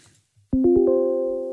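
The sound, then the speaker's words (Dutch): A reworked calendar meeting reminder chime plays four quick ascending notes that blend into a bright, sustained tone, ringing out clearly and slowly fading. No one speaks. “En ook eh, de kalenderpingel die is eh, aangepast. Want eerst was het ah, een vergadering. Luister maar.”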